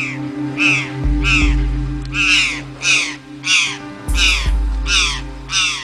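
A jay, a Brazilian relative of the crow, gives a series of about nine harsh, loud calls in a steady rhythm, with a low rumbling hum underneath and no talking.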